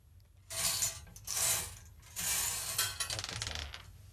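A wheel is spun for a last round of bingo, giving a run of bright metallic ratcheting clicks in bursts that speed into a dense rattle and then slow into separated ticks as it winds down. Nobody speaks.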